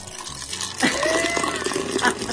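Draft beer pours steadily into a glass, a continuous gushing stream that starts abruptly and rises slightly in pitch as the glass fills.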